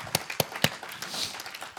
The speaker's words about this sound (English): Amen. If you trust Him, clap your hands to Him. Yeah, that's right.